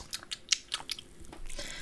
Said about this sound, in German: Bisschen rumschmatzen.